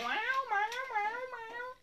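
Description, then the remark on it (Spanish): A female cat in pain lets out one long, drawn-out meow that wavers up and down in pitch, fairly loud, with no other sounds around it. “Yo sé que estos son antiinflamatorios y más la gata está así. Todo el día dormida porque está jodida el dolor, la pues pobre ahí maulla”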